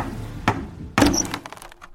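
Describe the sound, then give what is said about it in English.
A hammer knocks a hole into a wooden barrel of French cognac: one dull thunk, then a harder, louder blow that splinters through, followed by brief rattling and crackling debris. No voices. “Knock a hole in.”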